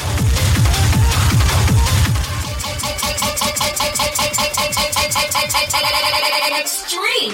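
A techno track pounds along with a steady, driving four-on-the-floor beat, heavy bass at first, then thinner pulsing synth stabs repeating rapidly before the music cuts off near the end.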